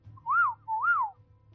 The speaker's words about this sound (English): And I since I know you didn't and we did, uh, I will give the whistle.